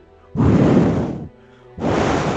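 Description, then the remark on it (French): A voice imitates wind blowing with two breathy, rushing whooshes, a longer gust and then a second one after a brief pause, loud. “Donc pas de GPS, le vent, comme nous l'a fait”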